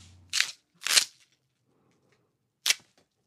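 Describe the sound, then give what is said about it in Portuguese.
Three sharp, crisp crunches of a bunch of chard leaves being snapped as a Foley effect for a human bone breaking. Two come close together, then a pause before a final snap, each loud, with no talking. “Tem também a opção de usar o alho poró, quebrar ele como se fosse um osso humano. Ou ainda um maço de folhas de acelga.”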